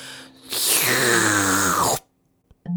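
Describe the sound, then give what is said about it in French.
A voice imitates a long, loud slurp of liquid through a straw, one continuous wet, hissing draw lasting over a second with a falling tone, then a couple of faint clicks. “Aspiration de liquide à la paille interminable, ça donne un genre de”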